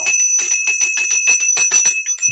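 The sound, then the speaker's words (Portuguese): A small bell rings rapidly and continuously, its bright metallic tone sustained over quick repeated strikes, loud for a couple of seconds with no voices. “Cuidado com o sininho, esse aqui é o alarme da gordurinha, então, ó, se liga nela.”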